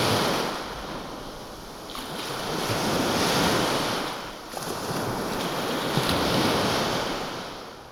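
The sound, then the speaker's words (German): Heavy surf of the Mediterranean Sea crashes in repeated surges on a stormy, rainy night, each high wave swelling and breaking loudly, with gusting wind roaring over the microphone throughout. No voices are heard. “Es war eine stürmische, regnerische Nacht mit hohen Wellen.”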